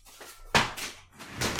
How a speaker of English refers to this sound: Opening my door.